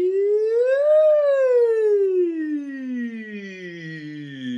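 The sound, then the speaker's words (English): A single voice sings a smooth siren-like glide on an "ee" vowel, rising quickly at first and then sliding slowly down in one sustained, clear tone, steady in loudness. “Um, and you know, vowels like e are great for that. Like if you can siren up e,”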